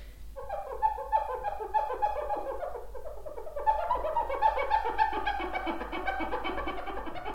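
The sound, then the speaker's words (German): A damp cloth with a little dish soap squeaks rapidly against a glass salad bowl, making a dense run of high, chattering squeals imitating monkeys, fairly loud, getting busier halfway through. “einer Glas-Salatschüssel, die ich beim äh, schwedischen Einrichtungshaus erworben habe, einen feuchten Lappen und ein bisschen Spülmittel äh, das Geräusch von Affen zu imitieren.”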